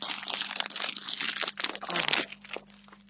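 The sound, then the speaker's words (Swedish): Continuous crinkling and rustling of a wrapped gift package being handled, with bursts of crisp crackling over about three seconds and no talking. “Men varför öppnar du inte dina paket? lyssna på mitt paket.”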